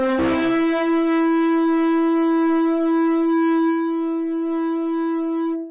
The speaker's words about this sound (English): God sent a huge cloud to cover the top of the whole mountain, along with crashing thunder lightning, and a very long, loud blast from a ram's horn.